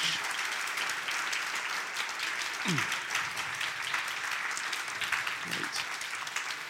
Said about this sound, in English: Thank you for those brilliant questions, and please give a warm hand of applause to our brilliant speakers. Thank you very much.